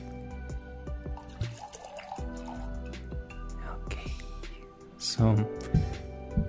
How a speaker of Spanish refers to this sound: me voy a servir un poquito de vino